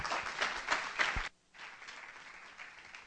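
Applause from a crowd, a dense crackle of many hands clapping at once, loud at first, then cutting off sharply and continuing as a thinner, quieter patter of clapping.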